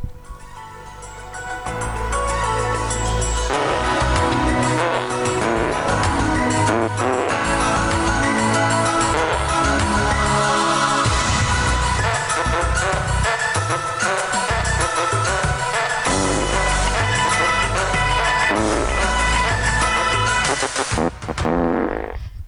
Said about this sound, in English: If this is your first time listening to the show, um, Welcome. and hearing the fart-based paging Dr. Lucy theme, welcome aboard.